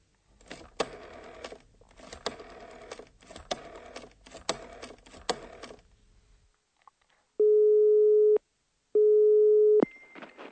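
A burst of rapid mechanical clicking, like a number being dialed, gives way to a telephone ringing tone on the line: two steady, loud, one-second tones separated by a short pause. The call is from Hotel Europa to a company, Firma Moll, to ask for a plumber.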